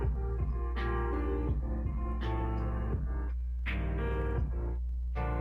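Loud, distorted music plays steadily with heavy bass, and shrill scream-like cries break through at intervals of about a second and a half. No one speaks over it.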